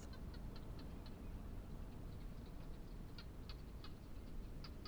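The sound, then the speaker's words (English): Barking geckos call in quick runs of short, dry clicks over a steady low rush of desert wind in the evening. The whole scene is quiet. “You can hear the winds blowing and the quiet call of the barking gecko.”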